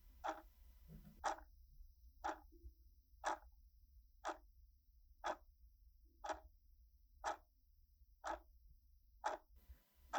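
A clock ticks steadily, about once per second, with roughly ten crisp ticks standing out against a faint low hum in an otherwise quiet, undecorated room with white walls.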